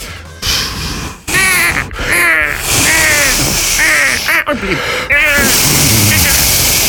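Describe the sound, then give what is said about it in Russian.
A person loudly mimics seagull cries, producing a rapid series of harsh, rising and falling squawks and caws over a few seconds, with short breathy pauses between bursts. “прямо сейчас я хочу оказаться на море и слушать крик чаек.”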